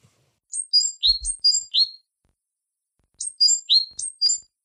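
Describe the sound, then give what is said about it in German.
Two short bursts of high, bright great tit calls, each a quick run of five or six chirping notes alternating slightly in pitch, with a pause between bursts and no talking. “Der Zilpzalp klingt in meinen Ohren fast genau wie ein Ruf, den die Kohlmeise häufig macht.”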